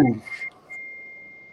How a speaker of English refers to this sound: Well timed ding on the phone there,